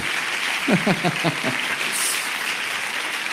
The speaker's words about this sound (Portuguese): Vão receber esse homem de Deus aí com um forte aplauso.